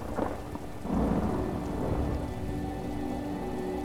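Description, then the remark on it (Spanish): A low rumble of thunder swells and rolls through a steady downpour of rain in a summer storm, the deep roar building after a moment and then easing back under the constant hiss of falling water. “No asustarte por cada trueno.”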